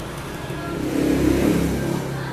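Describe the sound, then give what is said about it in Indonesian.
A car engine revs up, a steady low rumble swelling louder toward the middle and easing slightly, with faint traffic noise at the roadside. “rekamnya di pinggir jalan”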